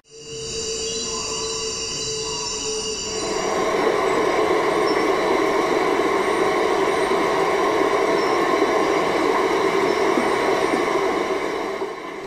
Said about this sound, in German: Aber er ist auch eine große Wasserstraße und was man hört mit den Hydrophonaufnahmen, die ich hier einsetze, ist eben auch dieser ganze große Verkehr, der dort ist und andere Klänge.